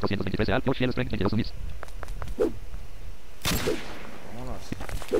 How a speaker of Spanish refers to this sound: Vamos a aventar una granada. Toma. Adiós.